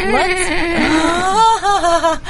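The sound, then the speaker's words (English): A horse whinnies in one long, quavering call, its shrill pitch wobbling up and down before trailing off. The sound is loud, with no talking over it. “for those of you on radio, that was that we have a horse in the studio.”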